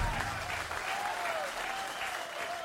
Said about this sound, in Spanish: aplauso que se escuche para don …, otro de los grandes de la música norteña.